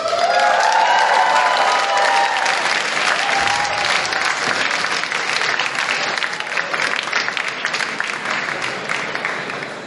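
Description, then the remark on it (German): A crowd applauds steadily for about ten seconds as the chess commentator is introduced at a Chess Boxing Global chess boxing event: a dense wash of clapping with a few whoops early on, tapering slightly toward the end. “Unser Schachkommentator ist niemand anderes als Mr. Sir Atkinson. Applaus.”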